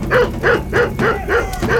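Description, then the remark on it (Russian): A dog named Boltai barks six times in a quick, steady rhythm, each bark loud with a sharp, yelping edge, and nothing else is heard between them. “Болтай, фу!”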